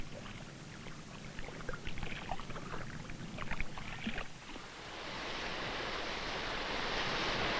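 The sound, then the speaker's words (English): Water sloshes and splashes in uneven bursts, then gives way to a steady, rushing wash of ocean surf rolling in toward the beach, fairly loud, with no voices. “The ball stays pretty much in place, even though the waves keep moving toward the beach.”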